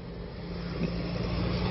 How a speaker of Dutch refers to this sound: Hé, hey, daar is een trekker. Een mooi ding. Poh. Ja, dat is mijn, mijn merk. En nog één.